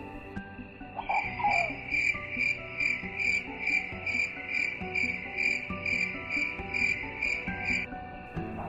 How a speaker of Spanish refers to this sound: ¿Lo escucháis? Qué noche más fantástica con nuestros amigos los grillos.